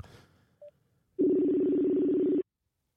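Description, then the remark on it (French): A short electronic telephone beep is followed by a long, steady telephone tone lasting over a second, loud, with no voices present. “On va peut-être pas vous laisser tous les bip bip bip et tous les répondeurs.”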